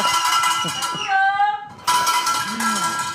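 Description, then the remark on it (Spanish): A garbage collector's hand bell rings with bright, metallic, clanging strokes, its tone shimmering and ringing on between hits, with brief vocal sounds mixed in. “Dale a la jazz la campana esa de la basura.”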